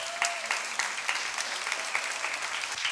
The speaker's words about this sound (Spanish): Un aplauso para chavos que viene de Cancún, por favor.